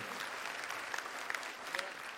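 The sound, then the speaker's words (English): A church audience claps steadily in a dense, even wash of applause, with a few brief, sharp whoops and cheers rising above it. “I want some hooting and hollering for this.”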